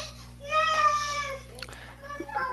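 A little girl fusses at bedtime with a drawn-out, whiny wail, followed by a few shorter whimpering sounds. Moderately loud, over a low steady background hum.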